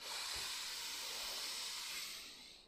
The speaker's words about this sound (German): Nochmal tief ein, durch die Nase in den Bauch.